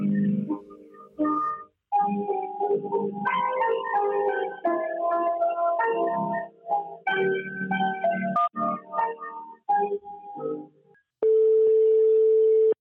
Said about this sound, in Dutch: want ik hoor hem al piano spelen.